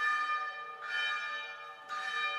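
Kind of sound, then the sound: signal or alarm, small church bell ringing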